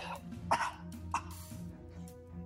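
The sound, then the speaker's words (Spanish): A voice imitates a bound creature coughing after being given a potion in its mouth: two harsh, raspy bursts close together, then softer rough follow-ups, over a steady low droning background. “le da la poción en la boca y empieza a toser”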